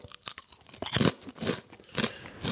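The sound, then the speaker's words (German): Loud crunching of crisp lentil chips being bitten and chewed, with several sharp bursts of crunch in quick succession and no talking. “das hört sich aber nicht an wie echte Chips, ehrlich gesagt. Das sind, pass auf, Linsenchips.”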